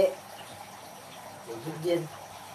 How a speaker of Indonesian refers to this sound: AC lo kayak 24 jam nyala ya?